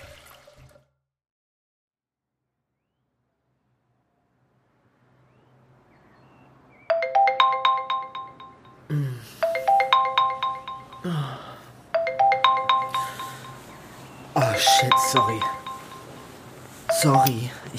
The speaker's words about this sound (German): hatte den Wecker noch gestellt.